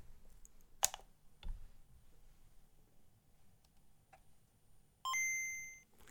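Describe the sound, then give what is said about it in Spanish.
A couple of sharp switch clicks, a quiet pause, then a video game console's power-on sound: a bright, ringing electronic chime that holds briefly and fades out. No one speaks. “Y ahora, si me permitís, lo que voy a hacer es que la voy a encender y quiero que escuchéis el ruidito característico que hacía cuando se encendía.”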